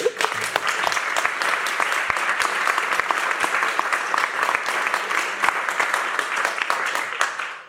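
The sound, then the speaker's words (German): A crowd applauds steadily, dense overlapping claps forming a loud, continuous wash of sound that holds for several seconds before tapering slightly at the end. “Ihr müsst äh, alle zuhören, jetzt wird geklatscht.”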